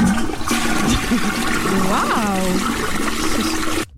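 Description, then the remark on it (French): The Queen's own toilet flushes loudly, a steady rushing gush of water filling the whole moment before cutting off abruptly at the end, with a voice faintly audible underneath. “ce sont les toilettes de la reine, les vraies.”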